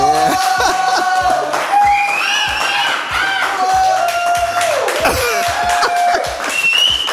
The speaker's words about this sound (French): Merci d'accueillir, sous un tonnerre d'applaudissements